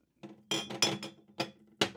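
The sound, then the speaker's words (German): Wine glasses clink together several times at an uneven pace: five or so bright, ringing knocks as they are fetched and handled to share a bottle of wine on a bench, with no talking. “Ach so, na dann, warte, ich hole noch ein paar Gläser dazu.”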